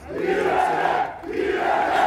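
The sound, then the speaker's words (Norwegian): A crowd of hundreds of supporters of Janan Kaftangiolo, packed together, chants the slogan "Justice, right and law" in Norwegian-reported Turkish protest, loud voices rising and falling in steady rhythmic waves, two full chant phrases heard back to back. “Rettferdighet, rett og lov, roper de taktfast.”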